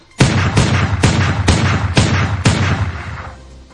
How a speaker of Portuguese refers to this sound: A mina tomou um tiro e ficou até o fim do pagode lá com um tiro.